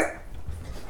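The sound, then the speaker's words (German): A single short, fairly faint dog bark at the very start, followed by a low background rumble with no further barks. “Ah, ihr hört die Hunde bellen, sehr schön.”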